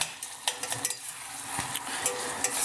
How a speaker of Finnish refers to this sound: Joo, täällä nyt tosiaan kattilassa suhisee kivasti, kivasti sipulit ja valkosipulit ja chilit.